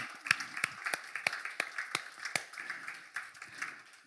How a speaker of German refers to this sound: Unser Next Steps Team macht einen großartigen Dienst. Will ich mal einfach mal einen Applaus geben dafür.